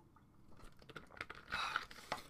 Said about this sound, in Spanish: Doy un sorbo de agua, permítame.